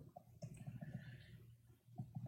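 Playing cards being cut into three piles for a card reading: a series of soft clicks and light slaps at an uneven pace, with a quiet pause before a final couple of taps.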